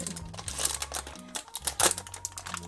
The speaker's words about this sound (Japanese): 今ねちょっとパリパリってごめんねカレールーをね溶かそうかという段階なんですけど何のルーでルーは何ですか今日はこ安かったんでコクマロカレー辛口を今から溶かそうかなです